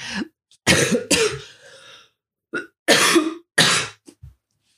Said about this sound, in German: Hm, dieser blöde Husten will einfach nicht weggehen.